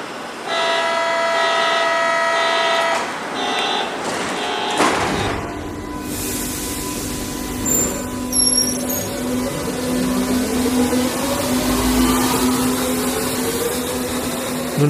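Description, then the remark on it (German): A Berlin U-Bahn train pulls out of Heidelberger Platz station: a brief tonal signal, then a loud rumble with an electric motor whine that climbs steadily in pitch as the train accelerates. “Im Vergleich mit anderen Berliner U-Bahn-Stationen rangiert er jedoch im Schönheitswettbewerb wohl ziemlich weit vorne. Zurückbleiben bitte.”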